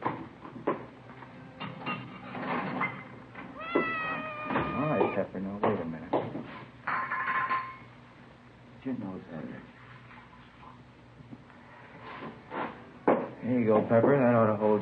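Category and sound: animal, siamese cat meowing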